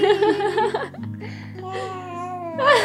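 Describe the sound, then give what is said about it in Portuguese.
A baby girl babbles and sings in bursts of high-pitched vocalizing, with a drawn-out melodic note in the middle and a brighter giggly outburst at the end, over a low steady hum. “Estão a ouvir lá o barulho de fundo, sabem? Está a cantar.”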